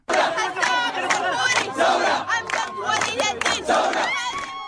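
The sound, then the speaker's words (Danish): A large crowd of Sudanese protesters demanding democracy chants and shouts together in loud, rhythmic bursts, while a young woman in a white dress, standing on a car roof in front of the military headquarters, sings above the roar of many voices, energetic throughout. “sudaner gå på gaden og kræve demokrati, og nogen kan måske netop huske den her unge kvinde klædt i en hvid kjole, der stod på et biltag foran militærets hovedkvarter og sang og, og blev ansigtet på den progressive bevægelse.”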